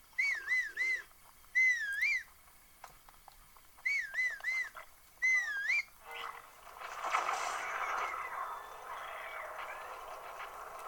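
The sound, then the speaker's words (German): Four short, warbling whistles with a wavering, trill-like pitch, clear, coming in two pairs, followed by a stretch of noisy, rustling background sound. “Ich pfeif mal.”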